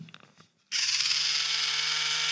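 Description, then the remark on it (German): After a brief near-silence with a few faint clicks, an electric callus remover, used to remove hard skin from a horse or a person, switches on abruptly and buzzes loudly and steadily, a harsh whirring grind over a low constant motor hum, with no talking. “Das ist wie ein Epiliergerät oder ein Riesenrasierer.”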